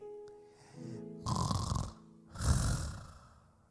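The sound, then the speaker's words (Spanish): A person imitates snoring: a short voiced hum, then two loud, rasping snore sounds in quick succession, each lasting about half a second. “¿Usted ronca?”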